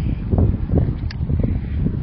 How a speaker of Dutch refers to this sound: Oh, en excuses voor de wind. Die gaat nou ineens eh, wat harder bij. Dus dan moet ik ook iets harder praten.